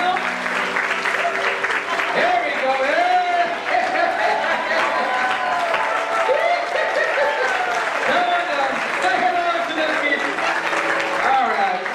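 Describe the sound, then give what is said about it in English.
Sustained applause from a sizable audience, steady and loud for the whole stretch, with excited voices and cheers mixed into the clapping, as the three wise men are brought out. “All right, give a round of applause.”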